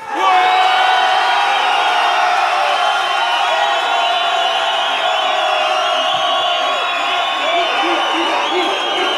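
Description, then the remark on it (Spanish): A large crowd of men roars and yells together on cue after a count of three, a loud sustained wall of shouting that starts abruptly and holds steady for several seconds, dense. “Y si les preguntas que grites otra vez”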